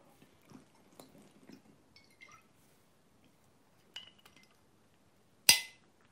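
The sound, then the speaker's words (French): Quiet handling of a glass as tap water is poured, with a few soft clinks and faint trickling, then one sharp glassy knock near the end that rings briefly. No one speaks. “là, c'est de l'eau du robinet, tu vois.”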